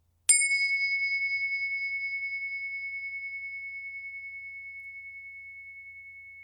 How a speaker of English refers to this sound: that full attention, awareness, and presence to the sound of the bell each time and focus as if this were the most important thing in the world right now. What would it be like to bring your full attention to the bell in that way? So, two more times.